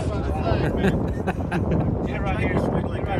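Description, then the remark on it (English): Strong wind roars and buffets the microphone in a steady, loud rumble throughout, with a muffled voice faintly underneath. “Man, it's windy over”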